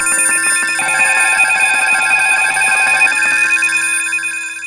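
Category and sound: household object, alarm clock ringing loudly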